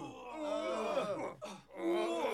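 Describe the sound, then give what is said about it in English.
A long, wavering moan from a human voice, sliding up and down in pitch with a brief breathy break midway, fairly loud with no words: the moaning of the Moaning Mansion, heard from a car approaching its entrance. “Derek and Deborah could hear the moaning long before the car reached the entrance.”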